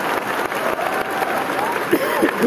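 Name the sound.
audience round of applause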